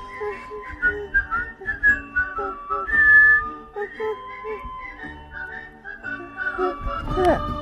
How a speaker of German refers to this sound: Jetzt versucht sie gerade zu pfeifen, es klappt aber nicht. Aber summen geht schon ganz schön, ne?